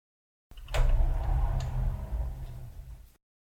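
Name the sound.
sliding door being opened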